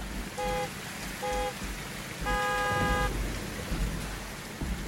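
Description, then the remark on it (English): Heavy rain lashes down steadily at Velvet Bottom, a dense hiss filling the whole stretch, while a minibus horn sounds three times over it, two short blasts and then a longer one. “Gardner continued to search the area in the lashing rain”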